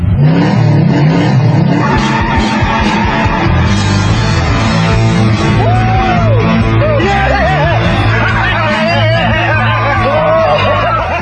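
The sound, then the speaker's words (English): A loud, throaty Hemi V8 car engine revs and roars steadily for the whole clip, with a murmuring crowd and occasional shouts mixed in underneath. “Hey, that thing got a Hemi? You're about to find out.”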